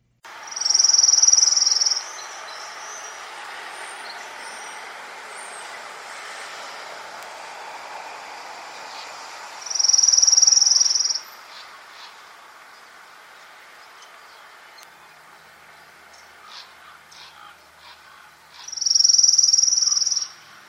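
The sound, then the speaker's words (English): An orange-crowned warbler's trill, sung three times about nine seconds apart, each a clear, steady, high-pitched run about a second long with no change in pitch or speed, over soft outdoor background hiss. “I will go ahead and play a orange crowned warbler call where the warbler did not change pitch and did not change the speed of its of its trill and the only reason I really was positive what it was is because I was able to watch it while I recorded.”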